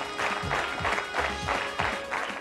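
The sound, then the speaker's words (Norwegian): Audience applause on the show Askeladden as a performer comes in, heard as a steady wash of clapping that swells in repeated bursts roughly every half second, with a low rumbling undertone beneath it and no one speaking. “Det er så deilig å få applaus.”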